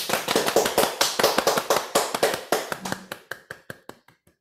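A group applauds, many hands clapping in a dense, steady patter that gradually thins out to a few scattered, fading claps. No one speaks.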